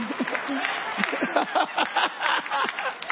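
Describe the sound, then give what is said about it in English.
An audience claps steadily in a dense, continuous patter, mixed with scattered voices calling out and cheering throughout. “I hear clap now.”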